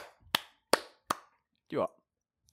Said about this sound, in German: Ja, geiles, Klatsch, geiles Klatschen, Digga. ja, du hast nicht mitgemacht, Junge.